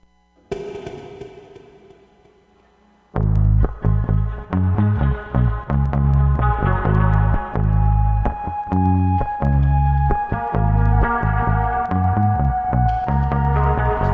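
A song's instrumental intro: a brief sustained tone fades out, then a loud, punchy electronic beat with deep bass and bright synth lines kicks in and drives steadily forward, with no singing yet.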